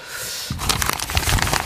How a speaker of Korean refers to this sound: 이 종이 구겨지는 소리가, 네, 이게, 이 소리가 이제 보물소리였는데,